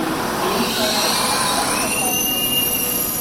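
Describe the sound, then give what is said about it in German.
A fairly full train from Milan rolls in loudly and steadily, its wheels and brakes letting out thin, high-pitched squeals over a constant rumbling roar as it slows, arriving on time at Rohkreuz at 18:13. “Der Zug von Mailand trifft pünktlich in Rohkreuz ein.”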